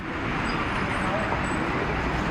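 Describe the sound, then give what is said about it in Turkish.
Dense, steady roar of road traffic on Zübeyde Hanım Caddesi in Elazığ, Turkey, with a car speeding past in front of a driver who is recording on a mobile phone, amid constant engine and tyre noise, loud and unbroken throughout. “Bir anda önünden hızla bir otomobil geçti.”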